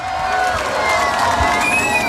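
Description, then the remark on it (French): A crowd claps and cheers steadily for the team of the Soch Freestyle Cup at the end of a Fun Radio evening in Marseille, a dense wash of applause with scattered whoops and shouted voices rising over it, loud and sustained throughout. “Je voulais juste remercier toute l'équipe du Soch Freestyle Cup, on peut les applaudir Merci à vous”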